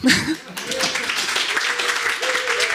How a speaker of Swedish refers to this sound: Och ge en varm applåd för oss.